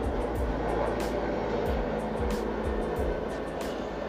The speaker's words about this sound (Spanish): está pasando un, helicóptero.